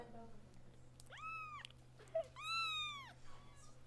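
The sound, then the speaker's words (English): Two drawn-out cat meows, each rising then falling in pitch, separated by a brief pause, with a soft steady hum in the background. “Uh, these kids are harassing me to show you the cats.”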